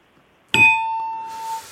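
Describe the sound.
A bright metallic ding strikes once with a faint second tap, then rings out steadily for about a second, a clear attempt at imitating the Netflix 'ta-dum' intro sound, with no talking.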